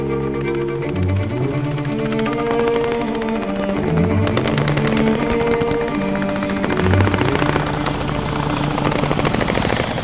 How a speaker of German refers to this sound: Eine Stunde später knatterte ein Hubschrauber der Feldgendarmen über meiner Stellung und blendete mich mit einem starken Scheinwerfer.